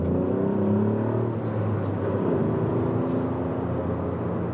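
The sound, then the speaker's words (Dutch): A three-cylinder engine in a new Ford Fiesta ST hot hatch pulls hard under acceleration, its loud, gravelly drone climbing in pitch, easing briefly, then building again steadily with no one talking. “ja, je hoort toch dat het een drie cilinder is, hè?”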